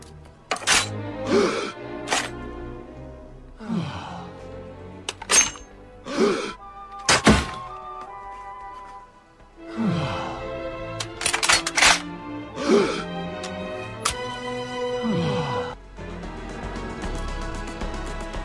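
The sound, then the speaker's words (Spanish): A pistol being loaded in a Family Guy scene in which Putin appears and a character draws the pistol, which turns out to be a lighter: a series of sharp mechanical clacks and thunks at irregular intervals, mixed with startled groaning and moaning vocal sounds from several people. “Sale Putin y salen pues uno de los personajes y entonces saca una pistola que es la que se oye, ¿no? Como que la carga y todos se asustan y de repente es un mechero.”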